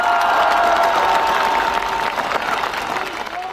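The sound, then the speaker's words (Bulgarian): A crowd applauds steadily and loudly for a few seconds, a dense wash of clapping mixed with cheering voices, easing off slightly toward the end, in applause for Nikola Minchev, the man who started this parliament. “Ръкопляскане за него!”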